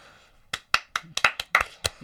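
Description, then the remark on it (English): A brief burst of applause from a small group: about eight sharp, crisp claps in a quick, uneven rhythm, starting after a short quiet moment and stopping abruptly. “Round of applause himself.”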